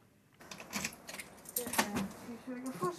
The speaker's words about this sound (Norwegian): nøklene til biblioteket her.